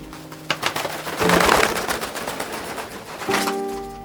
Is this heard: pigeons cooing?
yes